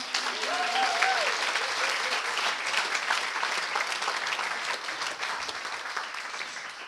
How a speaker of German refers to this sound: Deswegen einen herzlichen Applaus an alle Lehrer, wo sich so hingegeben haben.